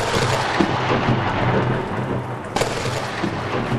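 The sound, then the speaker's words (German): A heavy thunderstorm rages with a steady wash of heavy rain and deep rolling thunder, broken by a sharper crack partway through. It is loud, with no voices. “da zogen schwere Gewitter auf.”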